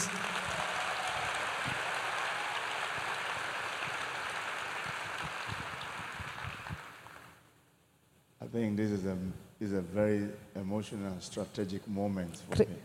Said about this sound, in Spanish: Vamos a darle un aplauso más al siervo de Dios.